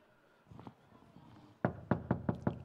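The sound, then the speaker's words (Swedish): Five firm, evenly spaced knocks on a wooden door, loud, preceded by a couple of faint muffled taps, with no voices. “Han vill att du ska komma och öppna dörren.”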